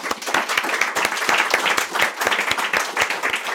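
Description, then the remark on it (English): A steady round of applause from a group for the guest host, dense overlapping claps with sharp individual smacks sustained at an even, lively level for several seconds, with no one speaking over it. “So listen, can everybody give a round of applause, my guest host?”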